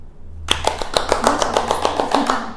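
A burst of applause starts abruptly and continues as steady, rapid hand claps from a small group, fairly loud and even in rhythm, with no talking over it.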